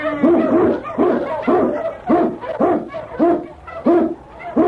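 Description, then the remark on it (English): King, an Eskimo lead dog, barks loudly while blazing the trail through storm and snow in the Yukon, giving about eight full, ringing barks in a steady, evenly spaced rhythm with no voices. “King, the swiftest, strongest of Eskimo lead dogs, blazes the trail through storm and snow for Sergeant Preston as he meets the challenge of the Yukon.”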